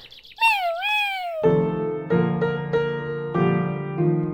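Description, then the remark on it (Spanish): A high, wavering kitten meow sounds, a couple of quick rising-and-falling calls, followed by bright sustained musical chords struck in a steady sequence. “Este gatito les dice adiós.”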